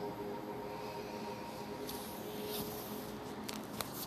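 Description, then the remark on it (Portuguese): Soft, steady splashing of a water fountain flowing continuously, with a few brighter trickling bursts and a faint low hum underneath; no voices. “Sinta o barulho da fonte de água”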